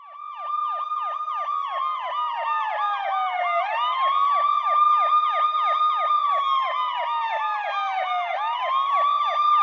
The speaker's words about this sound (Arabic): أخيرا وصلت سيارة الإسعاف وتتبعتها عربة الشرطة